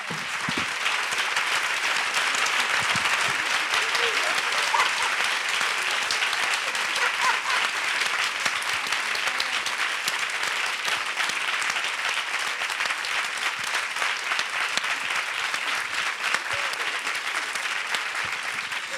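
Sustained applause from a studio audience for three female comedian guests at the end of a TV show's introduction, a dense, steady wash of many hands clapping at once, loud, lasting the full stretch without any talking over it.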